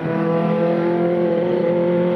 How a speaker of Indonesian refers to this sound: suara motor menderu-deru ya keren banget apa kayak Kawasaki kayaknya tuh wah mungkin teman-teman denger ya kawan-kawan denger suara motor itu ya